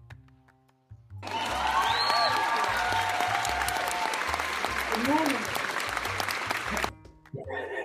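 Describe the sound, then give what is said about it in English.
A clapping sound effect: dense applause-like clapping from many hands fills about six seconds, loud and continuous, with voices calling out underneath before it cuts off abruptly and a brief voice follows. “Could you guys hear the good morning over the clap?”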